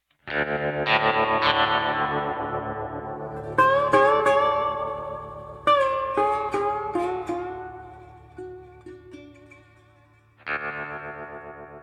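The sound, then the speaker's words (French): A short instrumental jingle of distorted, effects-heavy guitar or synth chords, struck in bursts with ringing sustain and a brief pause before a final chord, loud and with no voices. “bien voilà, après ce sonal que vous connaissez tous par cœur, toutes et tous, j'imagine”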